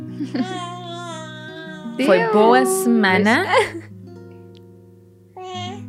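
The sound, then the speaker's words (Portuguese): A baby girl coos and babbles in high, wavering sing-song sounds as she sings, loud, with a brief adult voice speaking and a soft steady tone humming underneath. “Está a cantar. Ela adora a preconceição.”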